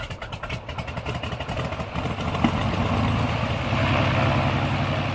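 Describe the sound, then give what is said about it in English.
An airplane propeller engine cranks up, its rhythmic whooshing pulses coming slowly at first, then blending into a steady, loud mechanical drone. Nobody speaks. “So when you imagine a propeller, uh, when it first starts up, um, it's repeating not very quickly.”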